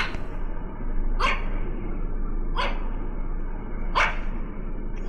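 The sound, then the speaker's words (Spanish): A dog barks three times, sharp single barks spaced more than a second apart, over a steady low background rumble with no one talking. “es muy listo tu perro.”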